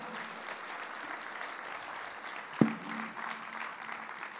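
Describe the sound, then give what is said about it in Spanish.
Steady applause from a church audience giving a loud applause of praise to the Lord as their pastor is welcomed, a dense patter of many hands clapping at an even level throughout, with one sharper louder clap standing out briefly partway through. “aplauso al Señor, hermano, y Dios le bendiga mucho.”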